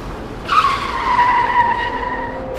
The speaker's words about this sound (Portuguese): Quando eu pego no PDT, eu olho e é que vem o carro, o carro que nos embateu. Vem totalmente desgovernado, já vem a fazer peão na estrada.